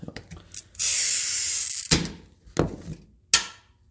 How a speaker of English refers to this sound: All right. So we're going to do a little glass cutting.